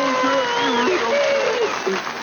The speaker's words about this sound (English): But before we go, let's have one last round of applause for the one and only Sylvester Stallone.